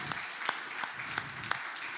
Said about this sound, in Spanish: Les he pedido que traigan su Biblia y le doy un aplauso a todos los que traen un cuaderno, una pluma para anotar. Démosles un aplauso.